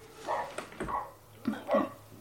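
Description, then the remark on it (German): A dog barks a few times, short sharp yelps in an uneven rhythm, fairly quiet against faint background noise. “Sorry, der Hund.”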